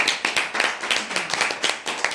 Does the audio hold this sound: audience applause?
yes